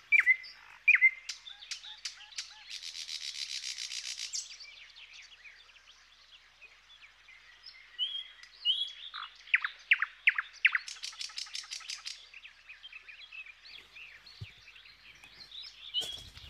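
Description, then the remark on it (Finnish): A nightingale sings alone, mixing high whistled notes and sharp chirps with fast, buzzy rattling trills, the phrases separated by brief pauses. “Ihana tarina ja voin kuvitella vain, miten suloiselta satakielen laulu kuulostaa tuossa tilanteessa.”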